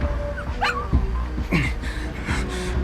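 A dog dangling over an abyss whimpers and yelps in short, high-pitched bursts, several cries in quick succession, with a low rumbling background underneath.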